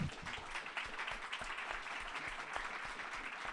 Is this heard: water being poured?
no